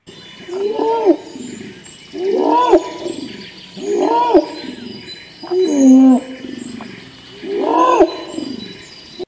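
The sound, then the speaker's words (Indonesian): Five loud primate calls, each a rising and falling hooting cry lasting about a second, repeat at a steady rhythm with brief pauses between them, clear, with no talking. “Primata menurut Wikipedia adalah hewan mamalia anggota ordo biologi primates yang dalamnya termasuk hewan lemur, hius, monyet, kera, dan orang utan. Ini contoh suaranya.”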